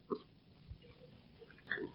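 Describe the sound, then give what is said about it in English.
Someone chewing fresh fish with wet, smacking mouth sounds: a louder burst at the start, a soft low thump midway, and another smacky burst near the end. No talking. “he said, chewing away at this delicious fresh fish.”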